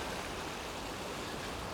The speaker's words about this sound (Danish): Jeg er på vej over selve slusen her. Der er godt tryk på vandet.